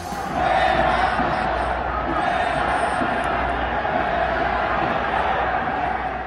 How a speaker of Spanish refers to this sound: Ahí, escuchamos eh, esto, eh, pues, estos gritos de fuera Tata, cómo abucharon ¿no? a, mi Funes Mori.